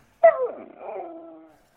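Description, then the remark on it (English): A single drawn-out canine whine, high and wavering, starting sharply and trailing off over about a second, with no talking. “Like the dog, you know, he's just glad to see me.”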